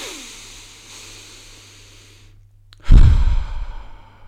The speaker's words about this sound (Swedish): några sådana här djupa andetag.